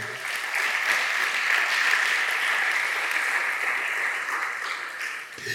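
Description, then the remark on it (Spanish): An audience at a church service applauds for Christ as king together in a sustained, dense burst of clapping that stays steady and fairly loud for several seconds, with no talking over it. “Dale un aplauso al rey.”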